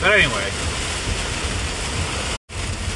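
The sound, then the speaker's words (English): Torrential rain pours down in a storm in a steady, dense roar that fills the whole recording, with a man's voice speaking briefly at the start and a momentary dropout near the end. “Holy fuck, I'm in a torrential fucking downpour here.”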